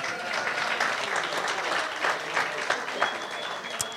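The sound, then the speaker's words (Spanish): An audience claps steadily for a few seconds, a dense wash of many hands with no voices standing out, moderately loud. “Y lo hicieron muy bien en tiempo récord, es un aplauso, muy bien.”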